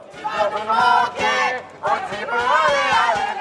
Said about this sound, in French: Oui, les chants des ultrapinots résonnent peut-être encore dans la vieille ville de Bergame plus de 24 heures après cet après-midi de folie dans le Collet Aperto.